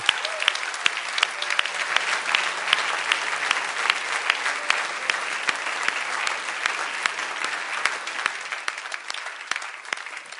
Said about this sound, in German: Lasst uns klatschen für diejenigen, die das getan haben.